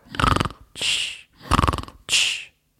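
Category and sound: human body sound, snoring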